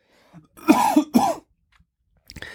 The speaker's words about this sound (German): Jetzt muss ich doch noch mal husten.